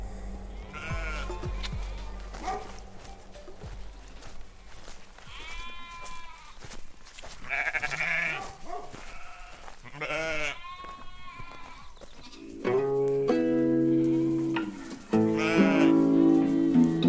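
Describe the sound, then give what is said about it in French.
A breeder's flock of ewes in the Drôme provençale, at Ballon, bleats continuously, many overlapping calls, with several loud, drawn-out bleats toward the end. No one speaks. “éleveur de brebis dans la Drôme provençale à Ballon”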